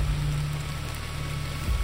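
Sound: rain falling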